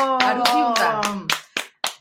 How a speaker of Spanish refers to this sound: Fuerte el aplauso.